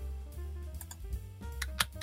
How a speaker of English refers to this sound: I love the typing. Sorry, I don't, I didn't know it was that loud.